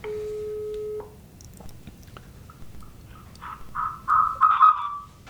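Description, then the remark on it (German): A steady electronic phone tone holds for about a second, then after a short pause a bright, chirpy ringtone melody plays in quick bursts, fairly clear, with no one talking, during a call from an N900 Linux phone. “Da klingelt's.”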